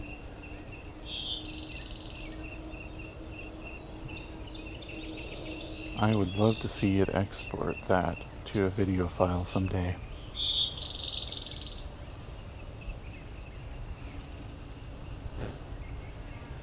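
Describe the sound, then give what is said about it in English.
A really loud blue-winged warbler, being recorded on a phone, gives two buzzy, two-part songs several seconds apart over a steady drone of crickets, with a man speaking briefly between the songs. “Wow, there's a really loud blue-wing warbler here.”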